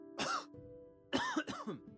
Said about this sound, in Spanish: Entonces se oyó la tos de un niño.